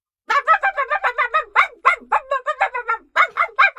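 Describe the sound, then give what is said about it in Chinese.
A dog named Rover barks over and over beside a bus in a rapid, steady string of about twenty sharp, high-pitched yaps, with only short gaps between them and no other sounds. “罗福一个劲儿的叫”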